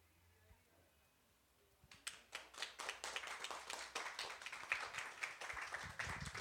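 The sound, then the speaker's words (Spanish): After a couple of seconds of near quiet, an audience at the close of the fourth Biblioteca de Noche talk session breaks into applause: many hands clapping together in a dense, crackling burst that holds steady and fairly loud to the end. “Bueno, y con esto cerramos la cuarta, el cuarto capítulo de conversatorios de la Biblioteca de Noche aquí en Un aplauso más grande, por favor.”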